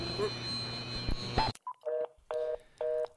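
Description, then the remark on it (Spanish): A noisy phone line abruptly drops out, followed by a short blip and three evenly spaced electronic tone bursts, like a disconnected-call signal, moderately loud. “No, te estoy, te perdiendo.”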